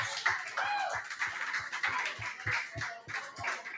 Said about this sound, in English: Please give them, from Pizza Man, a round of applause.